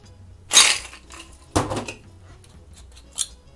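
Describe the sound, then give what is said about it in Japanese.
A passion fruit cocktail is poured from a shaker into a glass already holding ice: two sharp bursts of ice clinking and rattling against glass, then a lighter clink, with no voices. “これをですね、あらかじめ氷を入れたグラスに注ぎまして”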